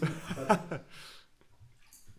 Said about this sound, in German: Ich gieße mir auch mal kurz noch was ein.